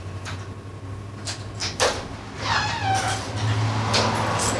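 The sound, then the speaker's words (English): A door is opened: a few sharp knocks and clatters, then a drawn-out creaking squeal from the hinges, over a steady low mechanical hum. “Hey, open that door.”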